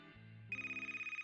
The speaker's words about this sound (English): and then the troop received a familiar phone call.